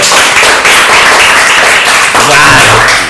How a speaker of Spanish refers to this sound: Eh, ¿Cuántos sois de un aplauso para, el Calipo, por favor? Vale, vale, gracias, gracias. gracias. Y, un, aplauso para el Micolápiz, por favor.